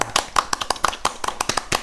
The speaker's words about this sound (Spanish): Aplausos, aplausos, aplausos, chingao.